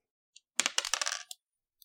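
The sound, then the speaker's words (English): Dice, rolled as a check in a game, clatter across a hard tabletop in a quick rattling burst of hard clicks and bounces, with a faint click before and another after, and no voices. “Give me a mundane roll on that.”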